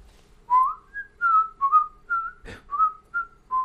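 A short whistled melody of about nine clear, bright notes moving up and down in a lilting rhythm, with a brief click partway through. No one speaks.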